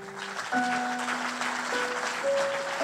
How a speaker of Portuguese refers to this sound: porque eu quero ser alguém que entende que a resposta de Jesus é suficiente que você possa aplaudir bem forte ao Senhor.